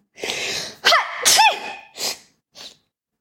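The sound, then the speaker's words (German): A loud sneeze with a sharp, breathy burst rings out through corridors, followed by a couple of quieter sniffles trailing off, the sound carrying a slight hollow echo. “Halt erneut durch die Gänge, diesmal gefolgt von einem Schniefen.”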